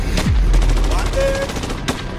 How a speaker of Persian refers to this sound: بعدش هم سر و صدای تیراندازی سر صدا رو میشنوی